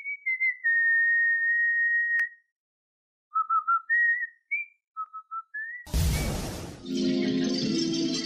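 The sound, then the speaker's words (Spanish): A cartoon sailor whistles a bright tune in short, sliding phrases with brief pauses, clear, then cut off by a sudden loud crash and a noisy, rumbling clatter. “Eh, pero bueno, silbido, marinero, cambio, muy importante el marinero, muy conocido por todos nosotros.”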